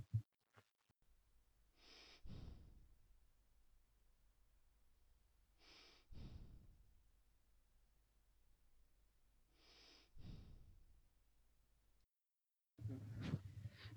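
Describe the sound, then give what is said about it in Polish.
A dog sighs deeply three times, each long, breathy exhale spaced a few seconds apart, with soft background hiss between them and no talking. “Ale westchnięcie psa chyba nagrało się nieźle.”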